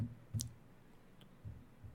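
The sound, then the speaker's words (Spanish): Dice that the owner has had for 25 years clicking as they are handled: one crisp click, then a fainter one a moment later, with soft low bumps in between. Quiet overall, no talking. “Son estos dados. Tengo 25 años con ellos.”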